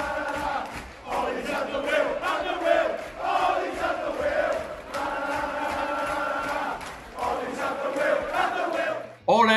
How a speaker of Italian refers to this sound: at the wheel, ole alla guida, cantano ironici i tifosi del Liverpool a Old Trafford sperando che il norvegese continui ad affossare il Manchester United, guidandolo dalla panchina.